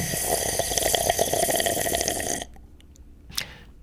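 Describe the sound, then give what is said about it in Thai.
A noisy, gurgling slurp of liquid being sucked through a straw for about two and a half seconds, then it cuts off, leaving quiet with a brief sharp squeak. “นั่นคือเสียงที่คุณได้ยินอยู่ตอนนี้นะครับแน่ๆว่าเกี่ยวข้องกับอะไรที่เป็นเส้นเส้นหลอดหลอดใช่ไหมครับแล้วก็เกี่ยวข้องกับอะไรที่ต้องมีน้ำแน่นอนนะฮะนี่คือ the sound of people sucking on a straw or They're slurping”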